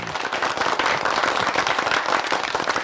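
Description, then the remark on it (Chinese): A group applauds steadily for about three seconds to encourage a child guest, a dense, even patter of many hands clapping at once with no voices over it. “大家掌声鼓励鼓励。”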